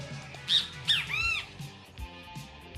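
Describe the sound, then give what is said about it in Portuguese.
Two sharp, shrill bird squawks in quick succession, followed by a longer warbling screech, loud with no talking. “Castelo Raimundo também tinha aquela do passarinho, que som é esse”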